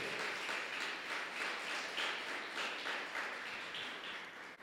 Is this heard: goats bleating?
no